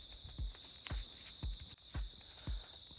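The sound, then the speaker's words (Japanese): A steady, shimmering chorus of bell crickets rings continuously at night, with slow, regular footsteps crunching about twice a second underneath as a person walks carrying a handheld flashlight. “相変わらず鈴虫の音が賑やかです。”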